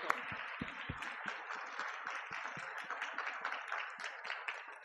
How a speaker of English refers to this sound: Gotta keep clapping until he gets a mic.